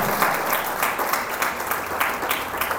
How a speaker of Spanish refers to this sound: Denle el aplauso a Cristo, por favor, esta mañana.